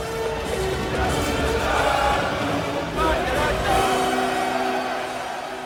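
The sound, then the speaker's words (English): A large group of young U.S. Marines in the film Jarhead cheer and sing along with Wagner loudly together while watching Apocalypse Now. Dense, continuous noise with crashing sounds plays as U.S. helicopters attack a Vietnamese village on screen. The chorus of voices stays steady throughout. “The Marines sing along with Wagner and cheer as the U.S. helicopters decimate a Vietnamese village.”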